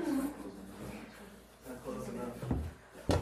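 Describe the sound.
A door is pushed shut, with a short wooden rattle and then a solid thud at the end, over a low murmur of background voices.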